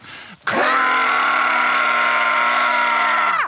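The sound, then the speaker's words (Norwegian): Three voices together imitate an alarm, a 'toad alarm' sent out whenever someone has had a mishap, with one loud, steady, droning tone held for about three seconds without a break, then cut off abruptly. A brief murmur comes just before it. “Ja, vi kan jo sende ut den, eh, den alarmen som har hver gang noen har gått på en smell her.”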